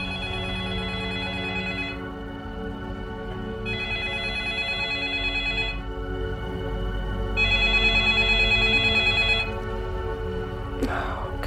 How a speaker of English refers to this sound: It's like he hears the phone ringing.